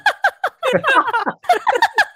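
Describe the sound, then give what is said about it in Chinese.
A voice mimics a bird-call doorbell of the kind found in old-style apartments: a rapid run of high, warbling chirps in quick bursts, a brief pause, then another string of chirrups, loud and with no other talk. “他为什么可以那么像电铃啊？ 你说那个吗？那个鸟叫声的电铃？”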